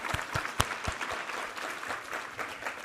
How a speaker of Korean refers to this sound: 할렐루야 우리 하나님께 감사와 영광의 박수 올려드리겠습니다.